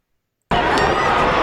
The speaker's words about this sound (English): Listen to the crowd right here when Tommy Rogers goes for the splash and Sullivan gets his feet up.